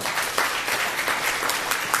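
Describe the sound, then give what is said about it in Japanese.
An audience applauds the performers of a skit, a dense wash of many overlapping hand claps at an even, sustained level with no voices standing out. “明ししてくださった姉妹や本当にスキッとしてくださった兄弟本当にありがとうございますとても感動的な劇で励まされましたもう一度拍手しましょう”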